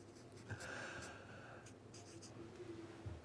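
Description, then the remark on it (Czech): A marker scrapes and squeaks across fabric in short strokes as someone signs a team jersey already bearing about 40 names, with faint breathy background noise and no clear talking. “aby si doplnil ano? náš dres, který je naplněn uh, zhruba 40 jmény.”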